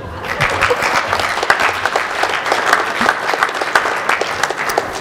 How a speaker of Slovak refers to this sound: Super, potlesk.